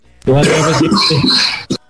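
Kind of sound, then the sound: human body sound, man coughing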